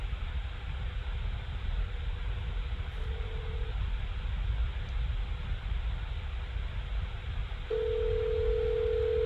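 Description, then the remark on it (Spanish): A cell phone call rings out as two steady electronic tone bursts, one short and one longer, over a hissy, rumbling line. Nobody speaks. “Oigo, el celular repicando.”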